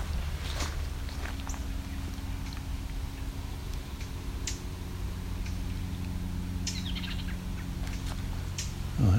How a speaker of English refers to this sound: I think that's the eastern towhee actually it's doing the ticking it's two of them